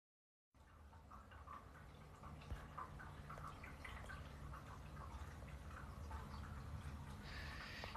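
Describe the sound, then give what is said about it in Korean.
Steady trickling and dripping water runs throughout, with small irregular drips over a constant low watery hum and no voices. “이 물소리는 그 뭐냐 쿠키 쿠키 물 그거예요.”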